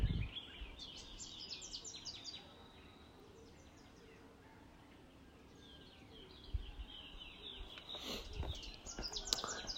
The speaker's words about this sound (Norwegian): Jeg vet ikke om du ikke hører det er lyden av mora her i Afrika. det er enormt, liksom kan ikke kalle det støy. Det er bare liksom som musikk. Og ulike kvitrelyder.